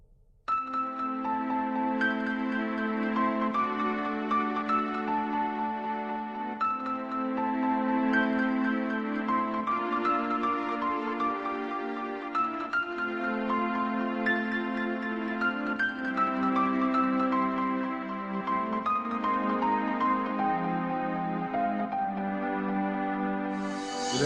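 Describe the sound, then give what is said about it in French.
Calm symphonic orchestral music from a video game plays on its own, with sustained layered chords and a gently flowing melody at a steady, moderate loudness throughout. “on est fou ou on n'est pas fou Symphonique”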